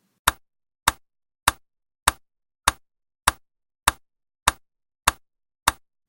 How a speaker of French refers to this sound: Je vais vous passer un nouvel extrait d'un métronome pour que vous voyez un petit peu à quoi ça ressemble.